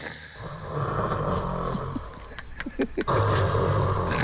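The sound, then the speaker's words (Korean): Loud snoring from a father and an uncle asleep at night in a shared room rattles on for several seconds in a deep, rumbling rhythm, with a few sharp snorting gasps near the end, with no one talking. “코골이 토너먼트야.”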